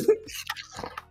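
Crackly rustling of paper being crinkled, in short irregular bursts of dry crackle over about a second, fairly quiet, with no one speaking.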